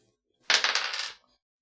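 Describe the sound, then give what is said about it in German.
Dice are rolled across a hard table in a quick burst of rattling clicks, bouncing several times before settling, fairly loud with no voices. “Okay, einmal würfeln bitte.”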